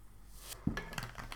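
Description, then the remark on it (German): A few short, weak hissing spurts from a soda maker carbonating water with a nearly empty cartridge, with a soft knock partway through and a faint clink of glass, all fairly quiet with no talking. “Nee, ist, ist nicht mehr, weil die Kartusche ist leer fast.”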